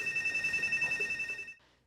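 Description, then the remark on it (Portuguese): A security siren installed by residents of a condominium building in São Paulo, Brazil, to go off when suspected thieves approach, sounds a loud, high-pitched electronic tone that pulses in a rapid, steady warble, then cuts off abruptly just before the end. No voices are heard. “Preocupados com a ação dos ladrões, os moradores decidiram instalar uma sirene. Cada vez que suspeitos se aproximam, o alarme é acionado”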